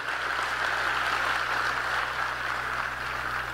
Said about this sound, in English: Clap it up for that.